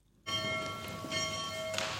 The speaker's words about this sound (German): Es ist 17 Uhr. Die Glocken der Klosterkirche in Gnadental laden ein zum Gebet.